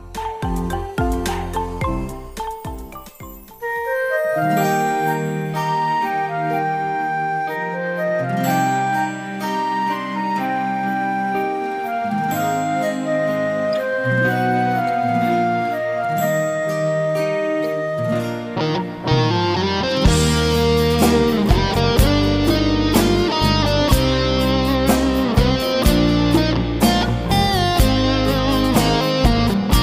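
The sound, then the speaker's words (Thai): Music plays steadily with layered melodic instruments and no talking, growing fuller and louder about two-thirds of the way through as the arrangement builds, like a song's introduction; played during a break in a radio programme. “ช่วงนี้เราไปพักฟังเพลงจากทางรายการกันก่อน แล้วกลับมาพบกันในช่วงหน้าค่ะ พักฟังเพลงนะคะ”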